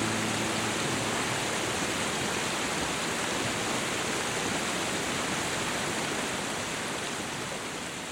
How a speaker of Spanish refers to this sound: Uno de los símbolos de Pasarón, al igual que de toda la comarca de la Vera, es el agua, que se puede observar discurrir por las calles o saliendo de los caños de la propia plaza.